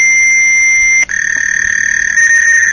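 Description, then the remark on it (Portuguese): Digital computer data recorded in analog form on a cassette tape plays as loud, continuous high-pitched electronic tones, with a brief dropout and a shift in pitch partway through, then a steady screech with no voices. “Que, na verdade, os nossos computadores gravavam dados digitais em formato analógico, por isso que a gente conseguia Isso. ouvir.”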